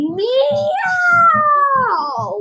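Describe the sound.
A person draws out a long, loud imitation of a cat's meow for the cat of phase 3 in a game, the pitch rising, holding, then sliding down, over a soft, steady pulsing beat in the background.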